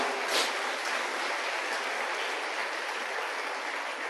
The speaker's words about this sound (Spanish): Sí, denle un fuerte aplauso a esta iglesia, tremenda inversión que han hecho con esto. ¡Wow!